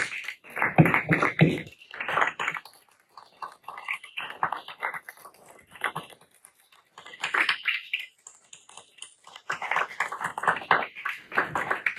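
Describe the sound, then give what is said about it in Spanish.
A church audience applauds for the Lord Jesus in uneven waves, dense bursts of many hands clapping that swell, fade briefly, then surge again over about twelve seconds, with no clear talking. “Le damos ese aplauso más al Señor Jesús.”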